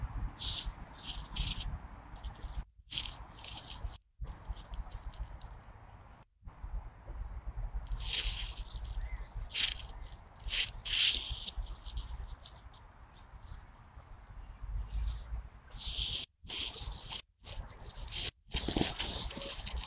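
A plain laughingthrush scratches through the ground litter while foraging, producing irregular bursts of dry rustling and scraping that come in quick flurries with short pauses, fairly loud and steady throughout.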